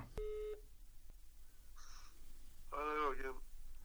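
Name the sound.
telephone ringing tone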